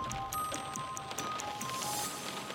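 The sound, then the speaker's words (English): Steady rain hisses continuously, with regular drops tapping at a quick, even pace. Faint sustained tones hum underneath, and no one speaks. “One rainy morning in the mid 1970s, signals analysts at the CIA's Moscow station settled in for their shift.”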